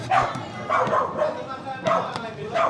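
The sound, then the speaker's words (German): Several dogs bark and yip in quick, overlapping bursts near a bar counter, fairly loud, with scuffling and brief clicks between the barks as they tussle. “Oh, jetzt hier ist aber wilde Keilerei von den Hunden hier oder was?”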